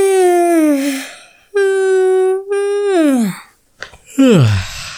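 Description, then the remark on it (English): A long, drawn-out yawn, stretching through several sustained moaning tones that sag in pitch, then a breathy intake and a final falling groan. “I gotta get this yawn out.”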